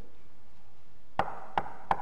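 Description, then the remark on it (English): Three firm knocks on a door, evenly spaced, ringing out after a quiet stretch with only faint background noise before them. “And he stands and he knocks.”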